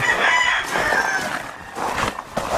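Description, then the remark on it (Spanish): A five-year-old male rooster crows loudly, a strained, wavering cock-a-doodle-doo held for a couple of seconds, with faint clucking and farmyard noise around it. “un gallo macho, un gallito abierto, que es el origen de mis tigres.”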